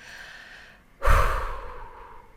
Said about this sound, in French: Donc quand le mental s'emballe, faire une pause et se reconnecter au moment présent, se reconnecter à sa respiration. On inspire, on expire.